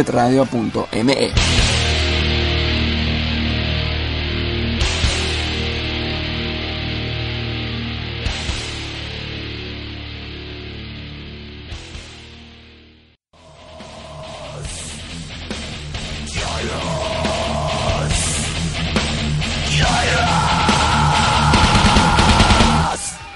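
A loud, dense live heavy metal performance with thick distorted guitars and steady pounding hits, cutting out briefly midway before more raw, noisy band sound with shouted vocals resumes.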